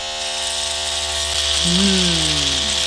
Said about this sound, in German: mach mal schnell den Rasierer an, damit alle sofort im Thema sind. Komm.